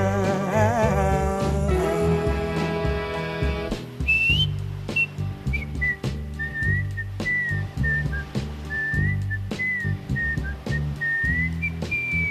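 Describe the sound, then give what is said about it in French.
A clear, pure whistled melody rises over a steady soul band groove with bass, drums and guitar, the whistled notes gliding and bending in a relaxed, unhurried tune near the front of the mix, played on France Bleu Paris radio. “là pour vous faire siffloter, même dans les bouchons, avec France Bleu Paris.”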